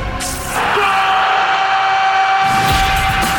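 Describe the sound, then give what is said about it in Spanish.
A crowd of people yells loudly together, a sustained roar of voices rising after a brief start and holding strong for about three seconds: people shouting a goal at a football match played among vineyards and irrigation ditches in the Cuyo region. “Mientras el grito de gol está ahí entre acequia y acequia.”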